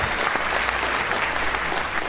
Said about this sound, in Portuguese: Muito bem, aplausos.